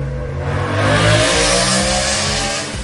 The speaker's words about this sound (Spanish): Perdón, es que abrí la ventana y pasó una moto. Si ustedes escuchan el ruido ahí, perdón.